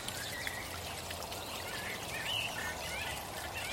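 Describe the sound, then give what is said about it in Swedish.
Steady rushing water from a small waterfall pours continuously, with faint bird chirps flickering above the splashing near the middle. No one speaks. “Detta genom att ackompanjera det irriterande ljudet av trafik med visuellt harmoniska objekt som ett litet vattenfall och till exempel ljudet av fåglar.”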